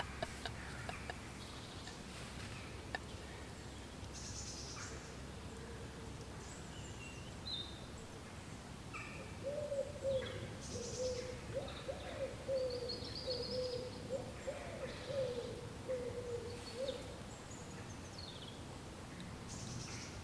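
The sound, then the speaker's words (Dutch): Birds call outdoors in a quiet setting, including a repeated low hooting or cooing from about ten seconds on, with scattered higher chirps over soft background hiss. “Uh, horen we de vogels?”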